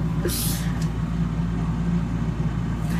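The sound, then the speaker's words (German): A tractor engine rumbles loudly and steadily as the tractor drives past very close to a VW bus, its deep low drone continuous throughout, with a short burst of hissing noise near the start. “Weil, also ich glaube, das wird euch in den äh, Ohren wehtun, wenn dieser Traktor jetzt ständig äh, sehr nah an meinem VW-Bus lang fährt.”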